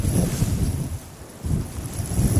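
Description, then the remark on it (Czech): Wind blows steadily over a plain in a low, rumbling rush, dipping briefly in the middle before gusting back up. Moderately loud, with no voices. “Medúzová záclona zhasla a vítr, který rozpohyboval i ježokeře na planině, ji pomalu odnášel pryč.”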